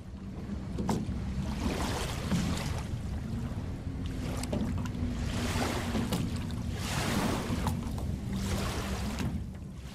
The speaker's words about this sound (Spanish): Esta tarde hay un pozo de silencios, de aguas dormidas que vienen a morir en un vaivén sin fin en la playa.